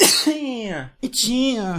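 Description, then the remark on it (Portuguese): Two loud sneezes by a man in quick succession, each bursting out as a shouted, word-like cry, sounding like calling out "Ritinha", with a sharp breathy onset and a drawn-out voiced tail. “Por que tu espirra chamando Ritinha?”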